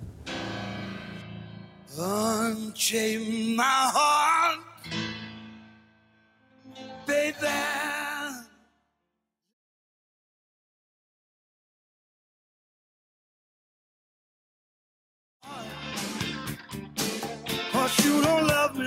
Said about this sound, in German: Wir hören Musik. Okay. Wir hören jetzt Musik.